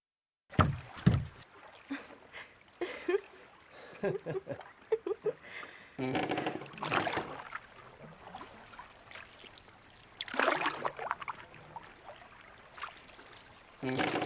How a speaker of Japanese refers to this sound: その声をかき消すようにおいらは船を漕いだ。